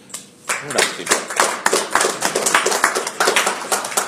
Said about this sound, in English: I, and I think he deserves a huge round of applause for the work that he's done on it.